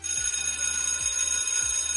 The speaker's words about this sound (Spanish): Espera, espera, espera, que, que eh, toco la campana del colegio